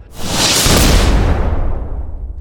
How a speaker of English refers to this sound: Okay, so Raskris throws his hand out. A little mote of light flies across the room and quickly turns into explosion,